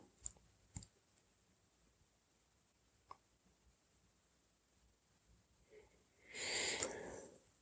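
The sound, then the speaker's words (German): A single breath during a body relaxation exercise, drawn in with a faint nasal whistle near the end, follows a few soft mouth clicks amid quiet. “ein Atmen.”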